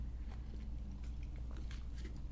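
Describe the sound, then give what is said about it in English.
Someone gulps drinking water into the microphone, a few wet swallowing and mouth sounds spaced over a couple of seconds against a low steady hum, with no talking. “I'm gonna get a drink of water. sorry if you hear this uh, drink, but uh, I'm drinking delicious water.”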